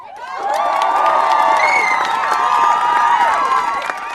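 A crowd of demonstrators gathered on the Römer in Frankfurt cheers and applauds the organiser during the closing speeches, loudly, with many overlapping shouts and whoops sustained for several seconds before easing off slightly at the end.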